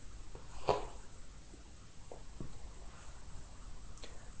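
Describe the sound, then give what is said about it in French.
A pen scratches across paper in a few short, faint strokes, with brief quiet gaps between them and no talking, as a woman signs a sheet of paper. “Elle signe, mais n'écrit pas spontanément le quantième du mois.”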